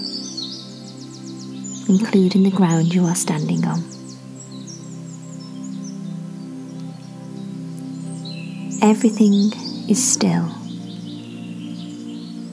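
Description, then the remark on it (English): Birds chirp and tweet softly in the background, a steady high twittering that continues while a calm voice speaks slowly in two short stretches. “The only sounds you can hear are the chirping of the birds and the soft rush of the breeze through the treetops.”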